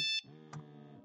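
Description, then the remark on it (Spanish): A mobile phone rings with an electronic ringtone: a short bright beep, then a sustained buzzy tone with a brief accent partway through. It sounds clear, with no one talking. “La anciana tomó mis manos y me entregó mi teléfono celular. No sé cómo y comenzó a sonar.”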